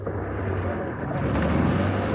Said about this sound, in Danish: Når man hører en motor, der kommer langsomt tøffende op ad floden, så vil jeg, jeg er hjemme, kan jeg sige. Så er der noget, der sker. Musikken fra motorbåden, når det kører.